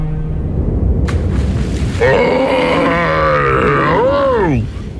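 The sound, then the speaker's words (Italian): A low rumbling background gives way to a loud, drawn-out bear growl that wavers in pitch and ends with a sliding, falling moan, with no talking. “Ehi, ciao, si orso tu? Sì!”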